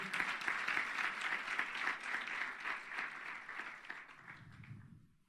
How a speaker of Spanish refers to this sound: si quiere aplaudir al Señor, hágalo, por favor.